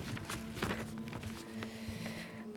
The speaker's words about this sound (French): je vous fais profiter des bruits de papier, hein, désolé.